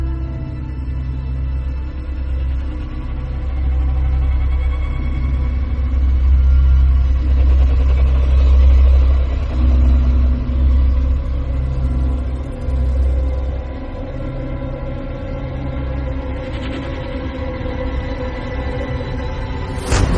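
A dark, ominous score from the 2014 video game Alien: Isolation, for the first encounter with the alien: deep rumbling drones and low sustained tones that swell toward the middle, with a faint high shimmer near the end and no voices.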